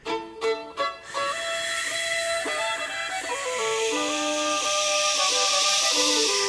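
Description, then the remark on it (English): A breathy, windy whoosh made by a singer's mouth into a microphone swells into a steady airy hiss with a Texas twang, with whistling, pitch-shifting tones riding over it after a few short puffs at the start. It is fairly loud. “It's got like that windy sound he makes with his like the”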